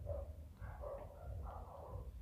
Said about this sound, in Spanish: Pero, o sea, porque creo que, creo que hay perros de fondo, vamos a tener que trabajar en esto.